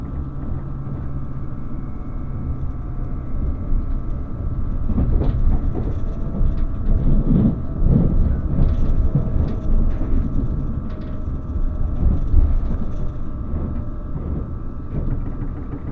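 The Relay Kamome No. 3 limited express train, travelling from Hakata to Kōhoku and nearing Tosu, runs steadily along the rails with a continuous low rumble and rhythmic clatter, heard from inside the carriage, swelling slightly louder midway with faint metallic squeaks.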